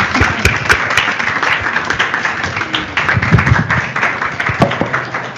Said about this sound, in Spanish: Un aplauso, por favor.